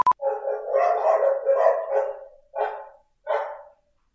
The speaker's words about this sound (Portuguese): Uma cachorrada aí